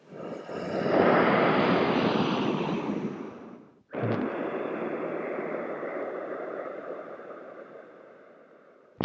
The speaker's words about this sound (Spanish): nos vamos a concentrar, como ya sabemos, ¿sí? en nuestra respiración, solo que ahora vamos a hacer la respiración oceánica, es decir, la misma respiración que hemos practicado durante 42 clases, pero amplificada.